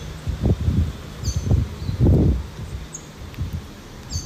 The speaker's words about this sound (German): Rundherum waren nur Ruinen, der Dschungel und Vögel. Hört's einmal.